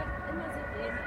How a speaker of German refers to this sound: Und man hört übrigens jetzt auch im Hintergrund die typische Podcast-Sirene, die auch bei jedem Podcast bei offenem Fenster da sein muss. Die, die verfolgen uns, glaube ich.